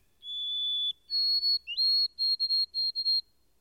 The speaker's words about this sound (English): I at last discovered that it was the white throated sparrow, a common bird all through this region. Its song is very delicate and plaintive, a thin, wavering, tremulous whistle